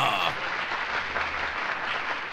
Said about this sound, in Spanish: Es Marlon Brando, amigos. ¡Un aplauso!